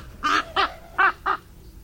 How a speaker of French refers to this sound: Quand un corbeau a trouvé la carcasse d'un animal trop gros pour lui seul, il va appeler ses congénères, moins par souci de partager son butin que pour éloigner les concurrents indésirables.